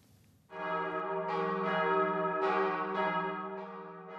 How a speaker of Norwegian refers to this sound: Kirkeklokkene ringer inn til en gudstjeneste i Nidarosdomen i Trondheim.